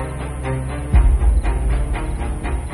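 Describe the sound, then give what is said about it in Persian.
A train comes along the rails around the bend beside an overpass, its headlight flickering, its low, heavy roar swelling with rhythmic clatter and a steady metallic hiss, fairly loud, with no voices present. “حالا پیکره قطار و سوسوی چراغش روی ریل از پیچ کنار پل هوایی دیده میشد.”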